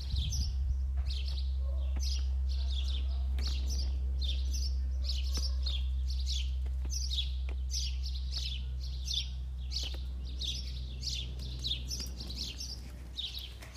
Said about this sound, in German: Ich kann es jetzt auch nicht ausblenden, weil es ist Vogelgezwitscher und ja, die sind einfach hinter mir. Und deswegen kann ich die jetzt gleich leise drehen.